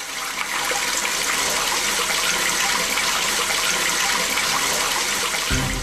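A standard German toilet cistern flushes three liters of water with a loud, steady rush that holds for several seconds, ending in a deeper gurgle as it drains. No voices.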